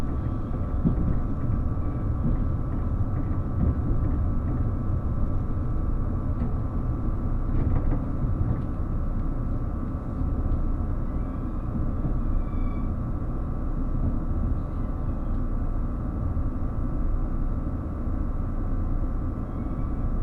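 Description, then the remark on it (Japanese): Steady, continuous low rumble from inside the moving Relay Kamome No. 3 limited express train, announced with Nagasaki Station, a constant mechanical drone filling the space with only faint brief clicks on top and no voices. “車は長崎駅の特急リレーかもめ3号です。”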